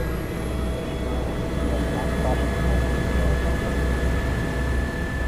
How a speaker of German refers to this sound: Der Helikopter landet beim Spital Grabs.